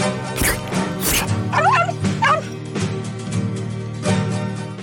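A dog barks loudly, a couple of sharp barks followed by higher yipping, whiny yelps and another bark, with no one talking.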